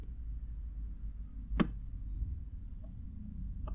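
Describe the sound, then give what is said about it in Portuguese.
A single crisp, sharp snap of a lip balm tube cap being opened and closed, over a steady low rumble of background noise, with a faint second tick shortly after. “É o batom do cieiro a abrir e a fechar.”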